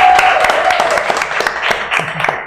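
audience applause

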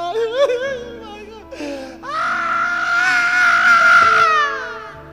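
man screaming loudly

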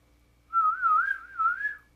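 person whistling

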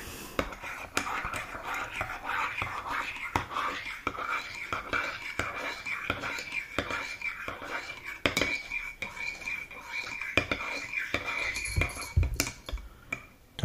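stirring with a spoon

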